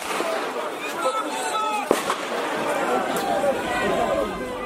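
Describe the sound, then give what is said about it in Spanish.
Street ambience of a busy city, Paris in 2019: a steady hubbub of many overlapping voices, with one sharp, loud crack or bang cutting through the crowd noise partway along. “Así suena París.”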